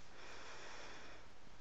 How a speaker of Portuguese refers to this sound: Respira fundo,